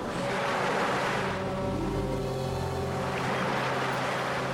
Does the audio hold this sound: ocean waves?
yes